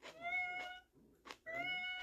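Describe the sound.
A person imitates the light, high meow a cat named Luna used to have, twice in a row, each call drawn out with a rising and falling pitch, fairly loud, with a brief pause between.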